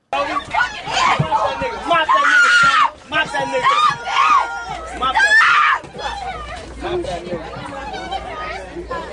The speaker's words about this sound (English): yes, women, women are screaming. The same woman that said she was going to punch somebody is now screaming.